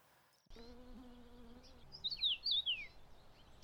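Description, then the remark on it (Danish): A few high, thin Bohemian waxwing trilling calls ring out in quick succession near the end, clear, following a low steady hum with no one talking. “så har de jo det her sådan øh, mm. vanvittigt meget hyggelige øh, mm. kald”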